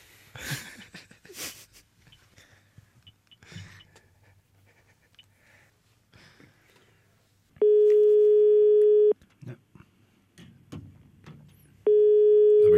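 A telephone ringing tone on a call: a steady electronic beep sounds twice, each lasting over a second with a long pause between, loud against faint breathing and rustling.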